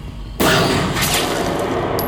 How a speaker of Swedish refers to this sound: Ett skott går.